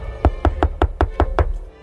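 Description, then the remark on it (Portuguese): Seven quick, evenly spaced knocks on a door, fairly loud with a solid, hollow thud, followed by a brief silence. No one speaks. “Deixa eu bater aqui na porta.”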